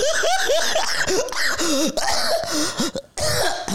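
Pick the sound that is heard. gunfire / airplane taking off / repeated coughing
repeated coughing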